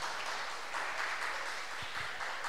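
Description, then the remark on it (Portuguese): A crowd applauds to the Lord for a visiting pastor, a dense wash of many hands clapping at an even, moderate loudness with no pauses, with a couple of faint low thumps near the end. “Eu queria que você aplaudisse ao Senhor pela vida dela.”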